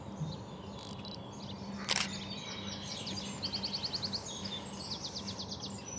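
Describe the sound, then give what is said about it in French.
A Eurasian wren, a small bird smaller than a robin, sings in rapid, high-pitched trilled bursts, two quick runs of notes over a steady outdoor hum, preceded by a single sharp mechanical click like a camera shutter. “C'est quoi là comme oiseau Alors là, du coup, en fait, c'était un troglodyte mignon.”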